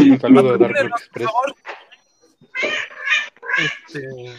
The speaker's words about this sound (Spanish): Tal vez escuchen a, una de mis gatitas por ahí maullando, pero. Esa es una gata callejera que este, encontré. Ella, ella también quiere participar en, la posada.